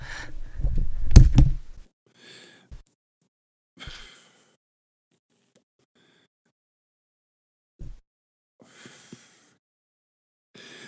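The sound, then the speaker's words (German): A front door is answered at home to take a mail delivery, with a heavy thudding rumble near the start, then a few scattered soft knocks and shuffling sounds separated by long stretches of quiet. “Es klingelt ja, gerade an meiner Tür.”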